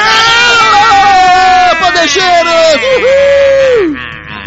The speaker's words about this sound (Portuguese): agora até acostumei com o seu grito japonês.